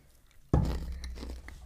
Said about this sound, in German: Und dann trinke ich gleich, äh, oh, dann esse ich gleich die Barbecue Nicknacks, äh, was sage ich schon, Nicknacks. Alesto.